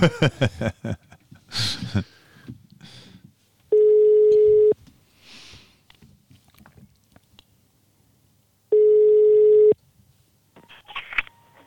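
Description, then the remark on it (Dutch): A telephone ringback tone sounds twice, each a steady one-second hum separated by a long pause, loud and clear, after a stretch of clicks and handling noises with no talking, as a call is placed by pressing the call button. “Bel knop. Telefoon 055 ja”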